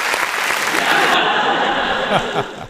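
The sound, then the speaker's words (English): A canned applause sound effect plays from a button in software: dense, steady clapping from a crowd that holds at an even level for a couple of seconds, then thins slightly toward the end. “I need to like come up with jokes or something now because now I can have applause like I'm special.”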